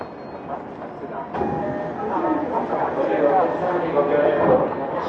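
A Tokyo Metro 05 series wide-door train runs steadily between Nakano and Nishi-Funabashi, with a continuous rumble and rattling wheel noise that grows slightly louder after an abrupt shift early on, plus scattered tonal whines from the motors.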